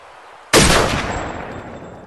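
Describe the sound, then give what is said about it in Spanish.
A single loud rifle shot, fired through a telescopic sight, cracks suddenly out of near silence in a forest in Alaska, its sharp report trailing off into a long echoing decay. No one speaks. “Entonces, de repente, un disparo certero suena, rompiendo todo el silencio del bosque de Alaska.”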